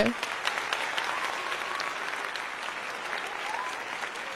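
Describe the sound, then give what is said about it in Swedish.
A large audience claps steadily to welcome the day's guest, a dense, even wash of many hands lasting several seconds without fading, heard from within the crowd at moderate loudness. “Så en stor applåd till”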